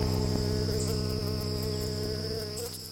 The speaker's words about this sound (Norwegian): Det er sent i juli 1905. Humlene surrer i blomsterengene, slik de gjør hver sommer, og alt er grønt og frodig.